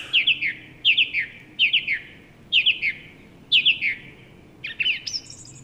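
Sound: thrush singing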